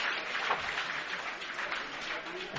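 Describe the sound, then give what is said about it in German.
A stadium crowd at a football game in Munich claps steadily and densely while a Comet player stays down on the field, the rapid applause forming a continuous wash of sound with a faint murmur of voices mixed in. “Ja, Comet-Spieler liegt noch, auch wenn das Publikum jetzt schon schneller klatscht.”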